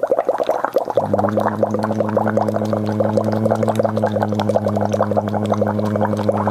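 Continuous bubbling of water blown through a straw into a glass during a voice exercise, with a steady low hummed tone joining in after the first second and holding under the rapid gurgling.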